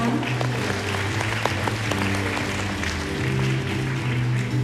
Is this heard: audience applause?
yes